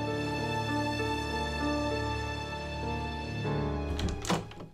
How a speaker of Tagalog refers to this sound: Pero pagkalapit daw niya sa pintuan, bigla na lang nagsara ang pinto. Alam niyang wala raw nagsara nito dahil kitang-kita niyang hindi tumayo ang dalawa sa pagkakaupo para lang pagsarhan siya.